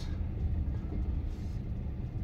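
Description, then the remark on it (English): Steady low rumble of a long night train moving after departing Moscow for Volgograd, continuous, with deep vibration filling the low end and no clear speech over it. “So here we are again, enjoying our meal on the on a long night train.”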